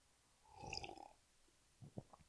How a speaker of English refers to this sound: sorry, it's a little tough to do with all these hiccups.